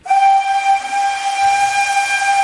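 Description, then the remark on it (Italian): A loud steam train whistle blows in one long, steady blast as the train passes, its shrill multi-tone note held over a rushing hiss of steam and low rumble. No one speaks. “Il treno è passato e tu lo hai preso?”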